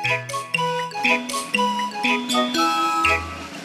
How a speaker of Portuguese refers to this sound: É uma bateria. Esta era fácil.